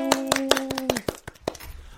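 A quick, steady run of sharp hand claps, about ten of them, fairly loud, with a brief sustained tone under the first half before the claps thin out toward the end; the hosts clap to introduce a song.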